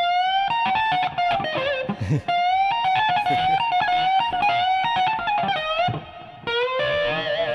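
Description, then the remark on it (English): An electric guitar plays a boneless chicken-picking style lick: a fast, steady run of bright, twangy notes with quick slides and bends, loud and alone without any talking. “like this is a boneless chicken picking lick.”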